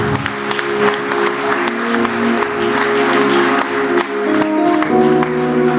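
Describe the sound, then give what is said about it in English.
A large audience, standing, gives the Lord a round of applause for several seconds, a dense, continuous wash of clapping with a sustained musical tone and faint voices underneath. “Please stand to your feet receive it, give the Lord a round of applause because time has gone.”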